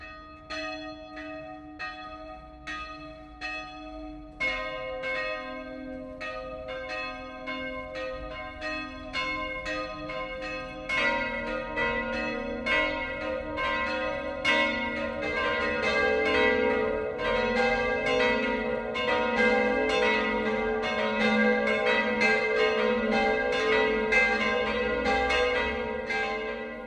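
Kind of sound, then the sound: signal or alarm, noon church bells ringing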